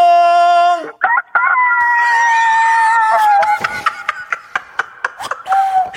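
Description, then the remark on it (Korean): A woman imitates a rooster crowing over the phone: a loud, drawn-out, wavering voiced call lasting a couple of seconds, followed by a scatter of short laughing bursts. “다시 한번 닭 소리로 인사해 주시고 저희가 전화 끊도록 네.”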